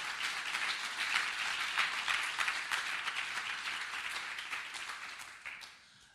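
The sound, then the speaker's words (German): An audience at a church service applauds for God, a dense wash of many hands clapping at a fairly even volume, with a few brighter claps standing out before it fades off near the end. “Das ist dein Applaus, Gott.”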